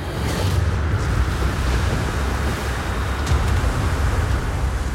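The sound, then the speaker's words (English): A continuous, heavy roar of ocean waves and wind at sea around a swaying, rolling sailing ship, dense rumbling surf with a strong low end and no breaks, loud throughout with no voices. “The oncoming waves threatened to tip her over.”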